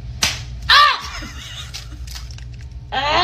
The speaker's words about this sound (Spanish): Así que vamos a, vamos a ver parte de la broma y escuchar la reacción en radio de los niños cuando les rompen el huevito en la frente.